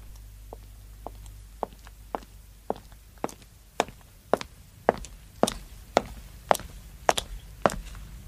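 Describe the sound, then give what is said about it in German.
Steady footsteps approach at an even walking pace, starting soft and growing louder with each step, about fifteen in all, with no voices, as a person walks in through an opened door. “Tür. Einfach aufmachen. Ja, weitergehen.”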